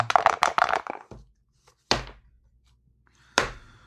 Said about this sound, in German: So, also. Jetzt geht's wieder los. Wir würfeln.